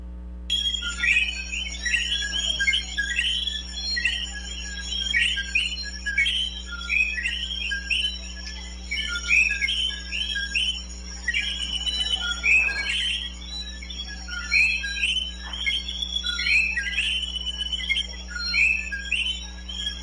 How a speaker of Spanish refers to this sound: Esos sonidos de coquí se van a escuchar aproximadamente y ese ambiente como por 40 segundos, faltan 30 segundos más.